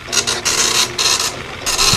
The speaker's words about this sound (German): Jetzt geht auch der Drucker, warte mal. Oh. Warum druckt denn der jetzt? Ja, das ist, das ist eine gute Frage, ja gerade. Jetzt druckt der einfach.